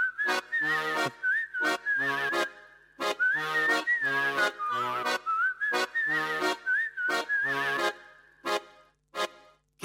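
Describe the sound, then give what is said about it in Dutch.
A recorded Dutch-language song plays as the first record of the programme, opening with a bright whistled melody over punchy, rhythmic accompaniment that hits in short repeated bursts. It is loud, with no singing yet. “We gaan een plaatje draaien.”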